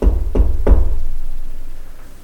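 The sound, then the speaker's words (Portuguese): Three firm knocks on the door of a mayor's office in São Sebastião do Ouro, evenly spaced, followed by a low, steady background rumble that slowly fades. No one speaks. “O prefeito de São Sebastião do Ouro foi então interrompido por batidas na porta de seu gabinete.”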